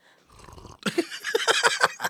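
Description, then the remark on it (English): A loud slurping sip from a drink, a short low rumble followed by a run of wet, hissy pulses for about a second, with no talking. “Did my sipping noise make it onto the headphones?”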